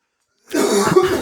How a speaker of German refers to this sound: Oh, Entschuldigung, ich muss mal husten.